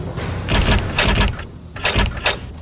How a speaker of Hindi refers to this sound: दरवाजा अंदर से बंद था लाख कोशिशों के बावजूद दरवाजा खोल ही नहीं रहा था